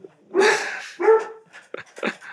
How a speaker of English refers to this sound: Sorry, you might hear my dogs. We're we're yeah, we're, we're all dog people here, so it's, it's good. Xander, that's Xander. He also he has some strong opinions hey, about Hudson.